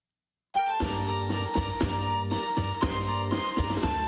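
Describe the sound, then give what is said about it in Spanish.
After a brief moment of silence, a recorded song starts playing at steady volume, with a pulsing rhythmic bass line under bright, tinkling bell-like melody. “Literalmente mm, un cuarto de millón de personas le gusta esta canción.”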